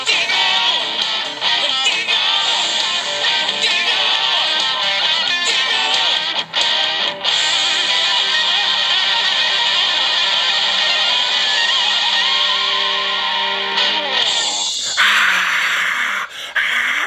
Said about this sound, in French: la foule en délire euh, qui applaudit évidemment